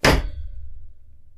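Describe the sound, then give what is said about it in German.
A huge old pirate-style treasure chest of wooden boards with metal fittings is dropped onto the floor in one loud impact, a bright metallic clang over a deep thud, followed by a low rumbling resonance that slowly fades. “Ja, so eine richtig ritterliche alte Schatztruhe und er lässt sie auf den Boden plumpsen.”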